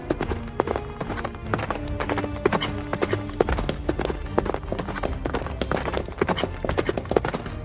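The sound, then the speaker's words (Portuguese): Rapid, continuous hoofbeats of a galloping horse clatter for several seconds, a dense rhythmic drumming of clip-clops over a low rumbling background. “Eles conseguem acompanhar o cavalo cansados, mesmo suados,”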